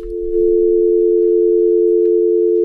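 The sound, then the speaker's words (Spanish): A steady, unbroken telephone dial tone hums at a constant mid-low pitch, loud and continuous for a couple of seconds after a brief rumbling click at the start, heard after a phone call is hung up. “Ya tengo que colgar.”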